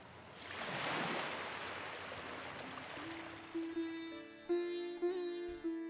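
Surf swells and hisses along a shore, a broad rushing wash that slowly eases, while a sustained flute-like melody rises over it and takes over in the second half.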